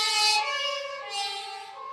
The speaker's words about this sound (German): Krankenwagen.